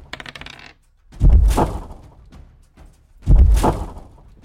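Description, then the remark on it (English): Dice are rolled twice, each throw a loud clattering rattle across a hard surface that quickly fades, preceded by a brief faint rattle at the start; the roll comes up a two. “Oh, and it rolled a two.”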